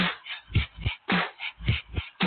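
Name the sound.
dog whimpering and yipping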